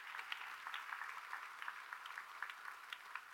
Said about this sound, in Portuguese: Quem pode dar um aplauso ao Senhor Jesus nessa manhã?